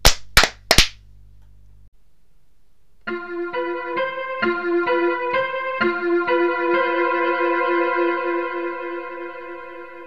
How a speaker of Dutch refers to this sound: Gaan we in ons handen klappen voor, eh, voor het geluidje dat moet komen? Oké, okay, 3, 2, 1.